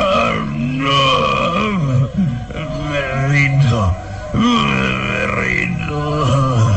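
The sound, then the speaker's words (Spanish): A man's voice imitates a werewolf's pained, rabid growls as its arm is twisted behind its back and its throat gripped: sustained, rasping groans and snarls rising and falling continuously, loud, with brief breaks between strained bursts. “al tiempo que su otra mano lo inmoviliza de la garganta el hombre lobo gime presa de intenso dolor y sus gemidos son más bien gruñidos rabiosos.”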